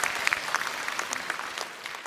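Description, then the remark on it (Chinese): A crowd claps steadily for about two seconds to welcome the actors back, a dense wash of many hands with sharp individual claps popping out on top, fairly loud and with no voices over it. “OK，好，有我们掌声有请我们的演员回来好吗？”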